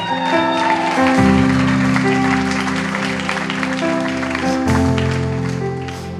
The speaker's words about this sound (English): It's okay to clap right there. Come on.